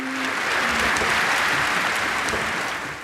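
A full-house audience applauds as a girls' choir takes the stage, a dense wash of many hands clapping at once that holds fairly loud for about three seconds before easing slightly at the end.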